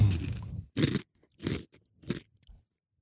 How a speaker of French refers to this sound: Bah, tu vois, en fait, en, en mâchant, Avec le micro. Les gros, là, ils font énormément de bruit dans la bouche. Hein. Bah oui, mais avec le micro. Ah, c'est- horrible. Je suis pas misophone, hein, mais vraiment ce bruit-là.